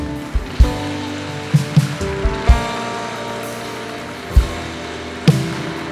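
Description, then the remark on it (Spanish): An audience applauds God steadily for several seconds, a dense patter of clapping punctuated by a few sharper, louder claps, with a sustained musical tone humming underneath. “Dale un aplauso a Él.”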